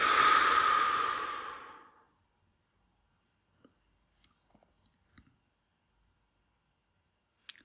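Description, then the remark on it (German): A long, deep breath out during a breathing exercise, a breathy whoosh that fades away over about two seconds, followed by near silence with a few faint clicks. “mache drei bis fünf tiefe Atemzüge und achte dabei, in den Bauch zu atmen. Tief über die Nase ein und aus.”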